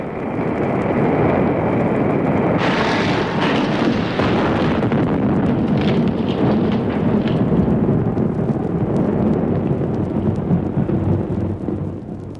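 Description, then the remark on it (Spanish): A loud, continuous roaring rumble of a fiery explosion as a meteor, an enormous crackling ball of fire, strikes a spaceship, swelling with a sharper burst a few seconds in and then churning steadily to the end. “Le vemos acercarse como una enorme bola de fuego, crepitante, espantosa. El choque sería inevitable”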